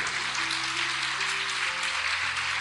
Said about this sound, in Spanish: Dale fuerte ese aplauso al Rey de Reyes, al Señor Jesucristo.